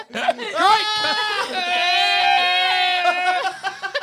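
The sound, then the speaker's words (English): A goat yells in a long, loud, wavering bleat that sounds almost human, all vowel, trailing off into a few short, broken cries at the end. “There's no consonant in a eh. goat's yell. It's all vowel just the whole way through.”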